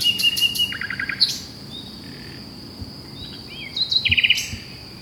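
A nightingale sings two bursts of song, with rapid repeated notes, sharp whistles and a fast trill separated by a short pause, against a soft outdoor hiss and a faint insect drone.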